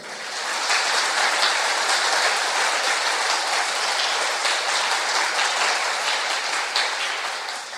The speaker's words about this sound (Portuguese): Eu quero um aplauso para o Senhor.